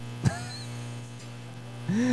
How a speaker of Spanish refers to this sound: Creo que sí es un cable que está metiendo interferencia. Ya está.